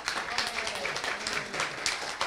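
A crowd of people at a church service applauding the parents together, a dense, steady wash of clapping that fills the whole moment at an even, fairly loud level, with faint voices mixed into the noise.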